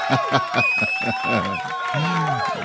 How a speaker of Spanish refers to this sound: A ver, mándanos un aplauso desde tu consola rápidamente.